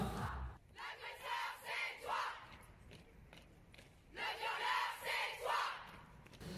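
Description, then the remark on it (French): A crowd of young people chants in unison outdoors at a street march held by youths, two rhythmic bursts of shouting separated by a brief lull, loud, with street ambience underneath. “Ça, c'est des images que j'ai prises pendant une marche qui a été faite par des jeunes”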